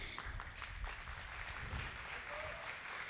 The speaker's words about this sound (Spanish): Le damos un aplauso a este estudiante.